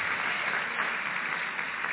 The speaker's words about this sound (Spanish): Y fíjense, dame un fuerte aplauso al Señor porque Él es bueno, ¿ah?